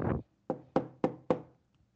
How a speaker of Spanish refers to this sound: Cuando de repente sonó la puerta